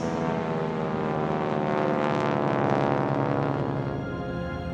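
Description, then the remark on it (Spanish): A small propeller plane drones overhead as it glides over valleys, its steady buzzing engine growing louder midway through before easing off slightly, with no voices. “La pequeña avioneta planea sobre los valles”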